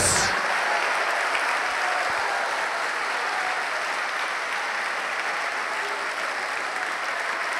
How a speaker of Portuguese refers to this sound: Aplauda, aplauda, aplauda, glorifica o teu Deus.